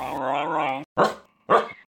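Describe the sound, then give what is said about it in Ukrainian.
A dog lets out a long, wavering whine, then two short, sharp barks about half a second apart, loud, with nothing else around them. “А в моїй інформаційній бульбашці це та сама депутатка Київради, яка ходить на всі мітинги із красивезним собакою”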